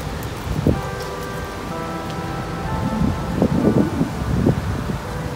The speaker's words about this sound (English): In fact, I can hear some of the church chimes over there going on in, uh, in the town.